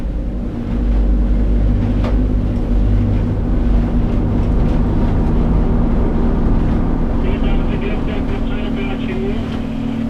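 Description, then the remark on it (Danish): A dinghy approaching a research station at Sermilik in East Greenland, its outboard motor droning loudly and steadily as the skipper eases off the engine, the low rumble shifting, with wind and water noise around it. “Jollen nærmer sig forskningsstationen, og skipperen tager farten af motoren.”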